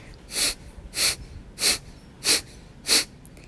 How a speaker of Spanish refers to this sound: Así que primero te vas a sentar con la espalda bien derecha y vas a respirar natural. Y cuando estés lista o listo, inhalas y empiezas a exhalar rítmicamente.